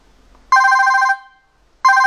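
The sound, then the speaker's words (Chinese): A BlackBerry phone ringtone: a loud, bright electronic ring with a steady tone plays for about half a second, fades out, then starts again after a short pause. No one speaks. “我给大家听一听啊，黑莓的声音啊，这很多人都没听过黑莓的铃声到底什么样，其实可能会让你大失所望啊。”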